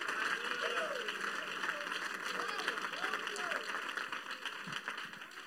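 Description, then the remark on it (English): A church audience claps and cheers at a preacher's call during a sermon, in a dense, steady wash of applause lasting several seconds, with a few raised voices rising and falling through the noise. “Oh, come on, clap your hands right now.”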